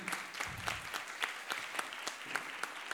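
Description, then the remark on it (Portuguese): An audience claps steadily in tribute to a journalist at a press event, a dense patter of hand claps with a few sharper individual claps standing out, even in volume throughout. “Uma salva de palmas para o Carlos Tramontina.”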